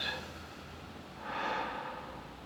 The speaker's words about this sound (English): He sat cross legged, like everyone else, facing us, keeping us up to date with his eyes closed of whether he was breathing in. Breathe in. Or breathing out. Breathe out.